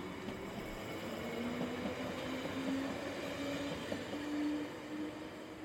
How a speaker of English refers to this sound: Using her trusty 8 inch metal torch, Evelyn joined a sea of people with dull bobbing lights as she took a Hammersmith and City Line train nine stops west to Baker Street.